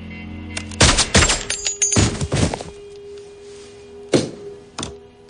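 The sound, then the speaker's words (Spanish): A volley of loud gunshots, about six or seven sharp cracking bangs in irregular bursts, some fired in quick pairs, as a man sitting on the floor fires at waiting men when an elevator door opens; a faint steady hum underneath and no voices. “Se abre la puerta del ascensor y sentado en el suelo, John dispara a los hombres que los esperan.”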